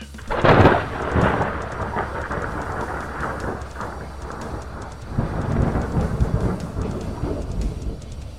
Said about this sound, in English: As lightning struck the ring